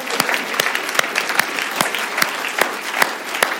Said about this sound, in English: If you're a doctor, if you're a fireman, if you're involved in the police. I wonder if we could just give them a great round of applause.